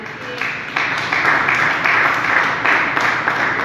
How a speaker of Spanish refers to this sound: Denle el aplauso a Jesús.